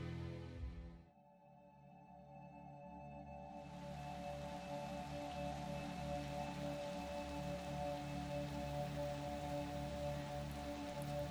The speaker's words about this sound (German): Regen und Wind rüttelten an ihrem Fenster.